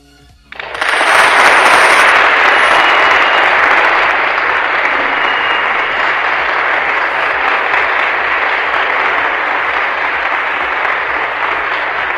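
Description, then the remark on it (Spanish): A crowd bursts into loud, sustained applause after a poetry recitation, a dense crackle of many hands clapping that swells quickly and holds steady for over ten seconds with no one speaking. “Aplausos, por favor.”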